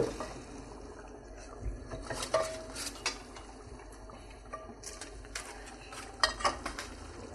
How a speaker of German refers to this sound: Dann setze ich schon mal die Pfanne auf.